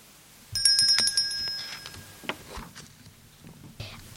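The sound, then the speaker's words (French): A telephone rings in a short, bright trilling burst of about a second, clear, followed by a few scattered knocks and clicks. “Clic, clac, Elle photographie le téléphone.”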